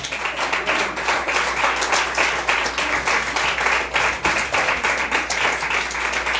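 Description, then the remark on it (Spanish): Steady applause from a crowd, dense overlapping claps forming a continuous loud patter throughout, with no voices standing out, given as an offering of applause during a sermon. “Denle ofrenda de palmas, pues, aunque me haga caras.”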